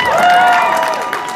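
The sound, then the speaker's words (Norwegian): A brief burst of crowd applause and cheering at BI Norwegian Business School in Nydalen, dense and fairly loud, with a few voices rising above the clapping before it starts to thin out. “La oss få litt applaus, da, så han tør ikke.”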